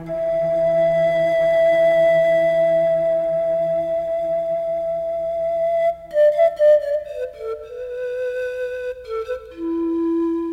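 A solo pan flute playing Miyagi's teaching motif in a film score, as Daniel goes inside and finds Miyagi meditating, holds one long, breathy note, then slides through a short run of descending notes before settling on a lower sustained tone, with a soft low drone beneath at first.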